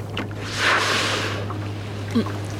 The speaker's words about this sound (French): Ah, attendez, c'est un souffle de baleine là qu'on vient d'entendre On a plongé avec des baleines à côté de nous Oui, dessous. Mais on les a pas vues. Elles sont passées juste derrière vous et on n'a rien vu, non.